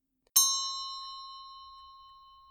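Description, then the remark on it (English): A clock bell tolls once, striking the hour of one: a sharp strike followed by a long, steadily fading ring that hangs in the air, heard alone with no voices. “with a deep, melancholy toll the bell sounded.”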